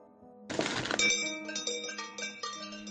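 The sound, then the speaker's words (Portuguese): A sharp clattering impact is followed by a small bell lying on the ground clinking and jingling in quick, uneven bursts, its bright metallic ring lingering with no voices. “Aquilo ali no chão! Não é o sino da jeta?”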